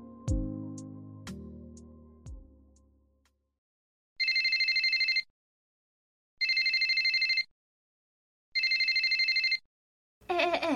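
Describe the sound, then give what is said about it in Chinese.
A mobile phone ringtone sounds in three loud, evenly spaced one-second bursts of bright, trilling high tones, following a few decaying struck notes at the start. No one speaks. “手机收起来，准备好啦！”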